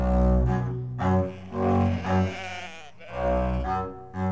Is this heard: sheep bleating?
yes